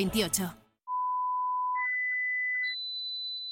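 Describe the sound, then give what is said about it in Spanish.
A brief burst of speech gives way to loud, steady electronic beeping tones in an advertisement for Sonofim by Pharma OTC, climbing in three steps to a shrill high pitch, the final tone pulsing rapidly in short beeps. “Pitidos Sonofim.”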